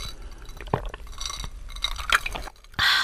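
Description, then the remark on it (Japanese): Glasses of a fizzy shochu and soda drink clink together in a toast, with a few sharp taps and liquid sounds, followed by a brief burst of hissing carbonation. No one speaks. “めっちゃいい音するじゃん美味しい美味しい さて、はい、今週も私たちはソーダ割りで、はい、もうソーダ割り一択で私は。”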